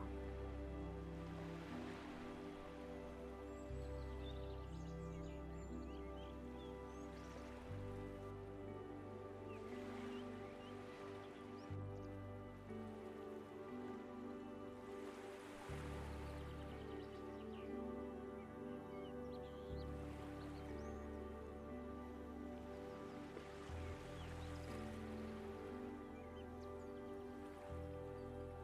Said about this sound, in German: Höre die Wellen des Sees, die kommen und gehen. Das sanfte Plätschern am Ufer. Höre den Geräuschen einfach nur zu.